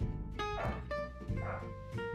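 A dog barks several times in quick succession, loud, each bark sharp and ringing, with a steady low background hum underneath.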